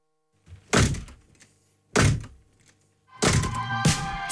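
A studio entrance door slams shut three times in a row, each a loud bang with a short rattling decay, the last one followed by a longer ringing rumble.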